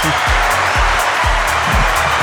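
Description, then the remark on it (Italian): An applause sound effect: a steady, dense wash of clapping that stays loud for about two seconds, with a regular low thumping pulse beating underneath roughly twice per second. “E su questo ti prendi l'applauso del server.”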